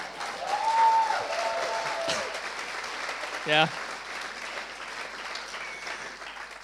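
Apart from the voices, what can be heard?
audience applause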